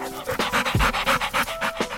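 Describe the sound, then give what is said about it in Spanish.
A dog growls playfully while playing, the sound broken into quick, breathy, rhythmic bursts like hard panting, steady and fairly loud for a couple of seconds with no one talking. “los perros también gruñen cuando juegan contigo, como cuando juegan a jalar algo.”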